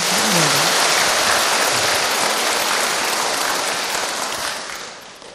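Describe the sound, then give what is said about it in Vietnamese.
An audience breaks into sustained applause, a dense, steady wash of many hands clapping together that stays loud for several seconds before gradually tapering off at the end. “Và xin chúc mừng cho những ai Tuy là không giàu, không nhiều tiền Nhưng mà không có nợ nần Xin cho một tràng pháo tay khen”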